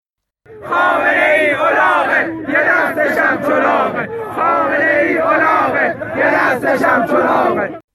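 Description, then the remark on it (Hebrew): A large protest crowd chants an insulting slogan calling Khamenei a donkey, in loud unison, the shouted phrases repeating in a steady rhythm with brief pauses between bursts, many voices blending into a dense roar. “אה, זאת סיסמה קצת מעליבה וקצת משעשעת.”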